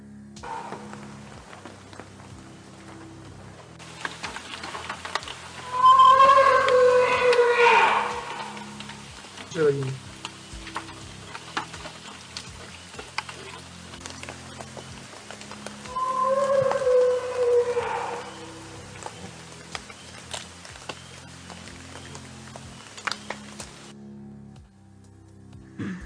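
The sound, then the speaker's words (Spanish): A purported Bigfoot vocalization recorded by a researcher: two long, wavering howl-like calls about ten seconds apart, rising loud then fading, over a steady crackly background with faint ticking. “Y me dicen si se escucha, pero les quería poner este que se supone que es un, uno de audios de Pie Grande que alguien, uno de estos investigadores grabó.”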